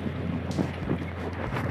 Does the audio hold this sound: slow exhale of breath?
no